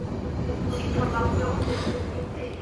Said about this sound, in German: Dann fährt der ICE ein und kommt auf Gleis 8 zum Stehen